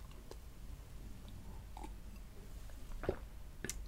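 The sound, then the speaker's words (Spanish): Quiet mouth sounds of someone sipping water: a few soft slurps and a gulp scattered over a few seconds against a low background rumble, with no talking. “tras un sorbito de agua, puedo decir que la afirmación es un mito.”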